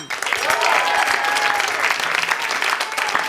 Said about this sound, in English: Hey, let's have a big round of applause